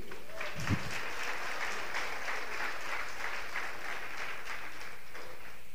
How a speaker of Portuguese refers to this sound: Amém, igreja? Você pode aplaudir?